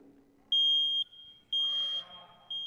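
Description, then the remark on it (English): A new smoke detector with a 10-year battery being tested sounds loud, sharp, high-pitched alarm beeps in a steady rhythm, three long tones about half a second each, with a brief rustle of handling noise in between. “This is one of those new ones. It has a 10 year battery.”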